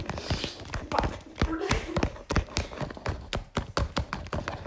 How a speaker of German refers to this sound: Ja, du müsst ja erstmal nochmal stampfen. Nein, machen wir vier. Ja, aber der vierte kommt erst rein, wenn du zerstört hast.